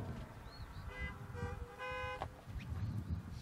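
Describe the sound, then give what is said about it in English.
Several car horns honk in overlapping bursts as listeners answer a preacher's question during a sermon, some short toots and a couple of longer blasts, over a steady low outdoor rumble. “If that was faith Mary was displaying, honk your horn.”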